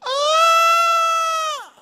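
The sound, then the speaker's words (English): A voice imitates the piercing yell of a lost little boy: one loud, sustained, high-pitched scream held steady for about a second and a half, then sliding downward as it cuts off. “And he let out this yell that would pierce the air, and it was horrible.”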